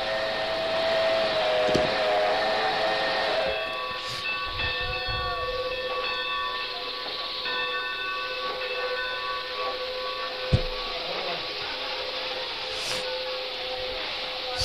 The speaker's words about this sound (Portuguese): o apito do trem, os barulhos do, do, do trem na, na, na, do dormente, o som dos dormentes de trem, né? o trem passando pelo, pelos trilhos, o apito do trem misturado com os sinos das igrejas.